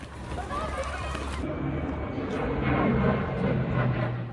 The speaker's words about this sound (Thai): ล่าสุดกลุ่มนักเรียนได้เผชิญกับสถานการณ์จริงหลังเครื่องบินรบมิก29 ของทหารเมียนมา บินลุกล้ำน่านฟ้าไทยผ่านตัวโรงเรียนก่อนจะบินวกกลับเข้าไปในเขตแดนเมียนมาเมื่อสัปดาห์ก่อน